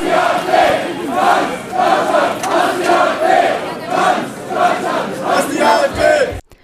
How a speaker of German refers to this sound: es waren in etwa 4000 Menschen, die sich am Mittwoch gegen die AfD und deren Gedanken gut ausgesprochen haben. Das Ganze klang dann in etwa so.